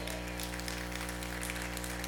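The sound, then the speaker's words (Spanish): A crowd claps steadily for a couple of seconds, a dense wash of applause at an even level, over a low sustained hum or held tone underneath, applauding the Lord at a speaker's request. “¿Alguien puede darle un aplauso al Señor?”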